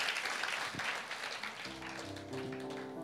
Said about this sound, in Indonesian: Boleh tepuk tangan bagi Tuhan. Haleluya.